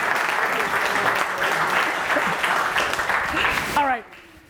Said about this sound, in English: Let's clap it up for these two warriors over there.